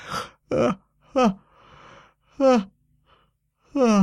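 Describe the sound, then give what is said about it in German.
A voice makes a series of exaggerated yawning sounds, five short, breathy vocal bursts with sliding pitch, fairly loud, separated by brief pauses and a soft exhale. “Allein der Gedanke brachte ihn schon wieder zum Gähnen.”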